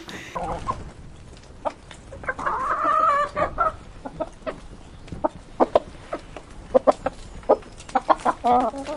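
Several chickens kept in a garden cluck in short, irregular bursts, with one longer squawking call early on and quieter clucks scattered throughout against a low outdoor background.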